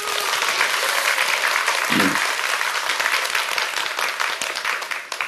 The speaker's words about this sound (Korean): 박수를 쳐주세요.